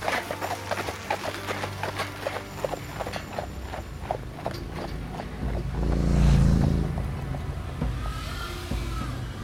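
Steady clip-clop of a horse's hooves at a walking pace, pulling a cart with a family of a wife and seven children aboard toward West Dallas, with a rolling cart rumble beneath; a low rumbling swell builds midway, and no one speaks.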